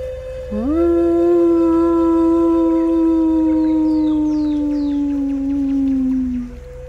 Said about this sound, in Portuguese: Ela voltou de seus pensamentos com o uivo do lobo.